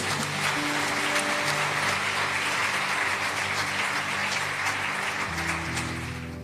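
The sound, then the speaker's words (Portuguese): An audience applauds the Lord Jesus steadily for several seconds, a dense wash of clapping over sustained organ or keyboard notes, easing slightly at the end. “Aplauda o Senhor Jesus.”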